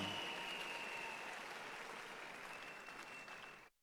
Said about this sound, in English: Church, please put your hands together for Jesus. The better you clap, the faster they come.